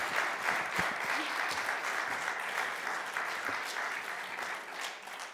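Steady, dense audience applause with many overlapping hand claps, sustained at an even level for several seconds before easing slightly at the end.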